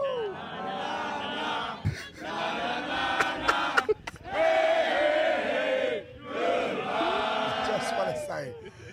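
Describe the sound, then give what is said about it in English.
A crowd yells loudly together in a chant at Greg Miller, shouting in about four long, sustained bursts separated by brief pauses. The massed voices are rough and overlapping. “We were walking away and they were yelling that at Greg.”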